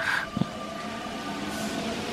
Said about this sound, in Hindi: बुढ़ा हंसने लगा और सिर के ऊपर से झंझनाती हुई मेट्रो रेल चली गई